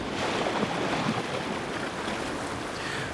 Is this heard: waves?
yes